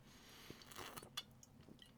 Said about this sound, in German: Ich habe mir jetzt erstmal, also zu meinem Bier, Prost, hier einmal einen Schluck Bier.